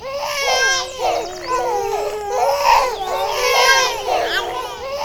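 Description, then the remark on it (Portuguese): High-pitched wailing cries, like several voices sobbing together, rise and fall continuously for a few seconds, loud and close, with no speech over them. “todas as plantinhas do home office estão chorando.”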